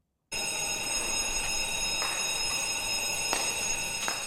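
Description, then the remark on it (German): A continuous electronic alarm rings steadily at a police-guarded government building, a shrill, high-pitched tone with bright harmonics that holds at an even level throughout, with a few faint clicks underneath and no voices. “Noch immer tönt ein Alarmsignal.”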